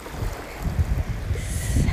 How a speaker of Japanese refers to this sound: 裸足で砂浜をこの波打ち際を歩いてます